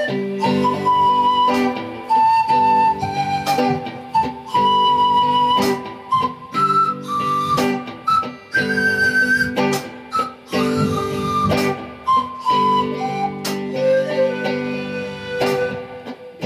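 A pan flute plays a breathy, high melody of sustained notes that step up and down, carried over a steady instrumental accompaniment, with no one speaking.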